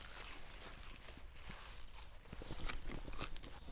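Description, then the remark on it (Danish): Crisp crunching and snapping as a fresh, early spinach leaf is broken off and bitten, with short sharp cracks repeating and growing louder toward the end, no talking. “meget lækker og sprød øh, spinat. Noget andet end måske. Du kan lige prøve. Jeg vil lige give dig en lille bid.”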